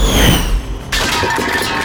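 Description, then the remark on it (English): Dishes crash loudly and break: a heavy, booming impact first, then a bright burst of shattering and clattering pieces that rings on for about a second, with no voices. “Oh no! Those were Macho's dishes!”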